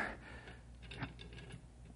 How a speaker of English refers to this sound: Hey, hear the the ticking sound. Is that? That's what we're after, Bill.